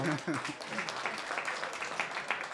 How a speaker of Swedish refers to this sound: Ja, vi har en applåd.